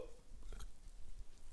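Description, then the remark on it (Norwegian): A low, drawn-out throaty yawn from a person while talking, breathy and groaning, lasting a second or so with no clear words. “Jeg har vært veldig mye travltid, så jeg beklager det at jeg driver og gjesper når jeg prater.”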